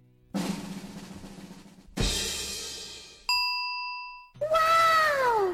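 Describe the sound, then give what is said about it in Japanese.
A string of separate sound effects played back to back from a 16-sound soundboard on an iPad: a burst of noise, a sharp hit, a clean bell-like ding, then a loud, near cat meow with a falling pitch. “チョイス猫チョイス猫かい最後というこの16種類の音が今俺の手元だよな使えるわけよでこれもなかなり選抜した16やねん”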